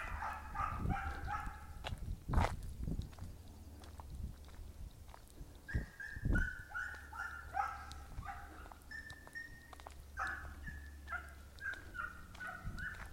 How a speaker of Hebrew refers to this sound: מעניין, פעם ראשונה שאני שומע פה כלבים.